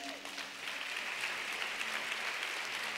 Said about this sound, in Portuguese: Quantos, quantos podem aplaudir nosso Deus por isso?